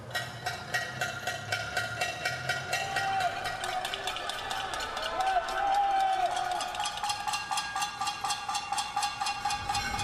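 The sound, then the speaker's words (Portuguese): Steady, rapid metallic clanging of pots being banged in a street protest against President Jair Bolsonaro in Brazil, a dense ringing rhythm with a murmur of voices and occasional whistles or shouts beneath it. “Panelaços contra o presidente Jair Bolsonaro eram ouvidos em diferentes cidades do país.”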